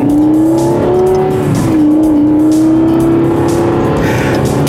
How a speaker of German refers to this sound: Also mit der Beschleunigung vom Auto, ja. Ab und zu muss ich wieder zwischendurch ein bisschen Gas geben.